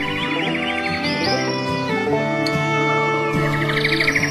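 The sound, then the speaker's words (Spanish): A busy chorus of many birds filling a grandmother's house chirps and warbles nonstop over a rich, steady tonal backdrop, fairly loud, with no voices. “Al día siguiente, la casa de la abuela se llenó de muchos pájaros que cambiaron todo el tranquilo aposento de la anciana, pues allí se les escuchaba cantar a los pájaros y había un bullicio muy alegre.”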